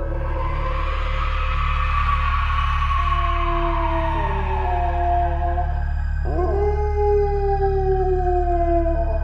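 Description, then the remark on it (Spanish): Several dogs, whose barking has turned into howls, howl together in long, wavering, mournful tones that slide in pitch and overlap, swelling loud over a steady low rumble, with no talking. “Todos aquellos ladridos de los perros se convirtieron en un segundo en terribles aullidos.”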